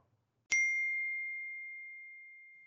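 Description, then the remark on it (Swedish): Glasses clink once in a toast, a sharp bright strike followed by a clear, high ringing tone that fades slowly over about two seconds, with no voices. “Vad säger vi? En skål på den kanske?”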